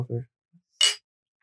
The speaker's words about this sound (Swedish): Det måste vi ändå fira lite. Ja, Eller något. Jag vet inte hur. Ja, fan. Skål för tredje veckan. ja, skål. Absolut. Skål, man skålar